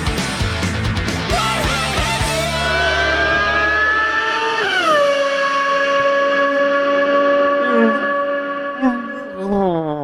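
A car roars past, its loud whining engine tone sliding sharply down in pitch midway as it goes by, showing the Doppler effect, then holding a lower steady drone before fading slightly.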